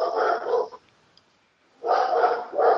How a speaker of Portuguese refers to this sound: Esse cachorrinho latindo lindo.